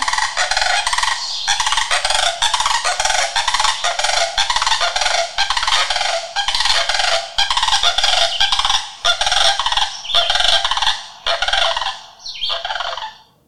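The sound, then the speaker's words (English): Loud, continuous rattling bugle-like calls of sandhill cranes played from an app on a phone, many overlapping in rapid pulsing bursts for about thirteen seconds, raucous with no talking. “Okay, uh, and because I have an app on my phone, I wanted to play for you what sandhill cranes sound like.”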